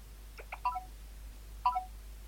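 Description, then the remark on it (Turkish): Two short electronic signal chimes from the VoiceOver screen reader on a phone, each a quick cluster of bright tonal blips, separated by about a second of quiet with a low hum underneath. The signal sounds as a finger presses and holds on Braille dot one to enter exploration mode. No one speaks. “Önce bir sinyal sesi geliyor. Sonra da voiceover'dan keşif modunu dediğini duyuyoruz.”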